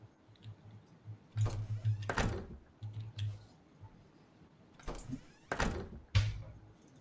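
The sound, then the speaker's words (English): A door shuts, with two clusters of latch rattles and solid thuds a few seconds apart over a faint low hum and light ticking. No one speaks. “Sorry, I'm not sure if I shut my door or not.”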